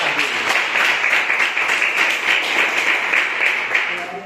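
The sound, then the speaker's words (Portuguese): An audience applauds together in praise of the Lord, a dense, steady wash of many hands clapping at once, fairly loud, sustained evenly throughout with no talking standing out above it. “E essa foi a palavra que Deus ministrou no meu coração, e por oportunidade, as palmas que louva o Senhor.”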